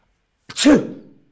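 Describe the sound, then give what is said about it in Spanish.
A single sharp sneeze bursts out after a brief silence, with a breathy hiss and a short voiced snap, fading quickly. It is fairly loud, with no talking. “¿Tienes alergia?”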